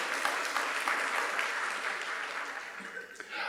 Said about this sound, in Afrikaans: Julle kan vir hom 'n lekker hande klap gee.